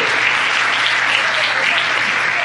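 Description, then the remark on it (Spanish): Sustained audience applause, a dense steady wash of many hands clapping at once, loud and even throughout with no voices standing out. “Bueno, quiero un tremendo aplauso por estar aquí, por favor, porque está en el lugar correcto.”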